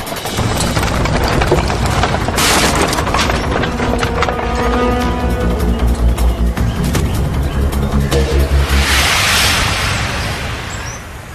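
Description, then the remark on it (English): The front axle of a Donner Party wooden wagon cracks and gives way amid rumbling wheels, creaking timber and clopping hooves, loud, with a sharp splintering burst early on and hissing noise near the end. “A broken front axle.”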